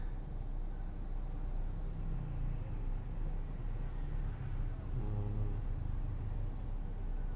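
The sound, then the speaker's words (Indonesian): A car idles in a traffic jam in Mampang around ten in the morning: a steady low engine rumble runs throughout, with a brief humming drone swelling near the end. Nobody speaks. “jam 10-an di Mampang aja macet banget gila karena ganjil genap katanya ganjil genap gak ngaruh apa-apaan ganjil genapnya diperpanjang lagi jambo jambo untung hari ini ganjil mobil gue ganjil masih aja macet gak ngaruh nih ganjil genap aduh”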